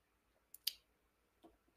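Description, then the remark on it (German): A few quick, soft rustles, like paper or plastic being handled, two crisp bursts followed by a duller one a moment later, with no talking. “du raschelst”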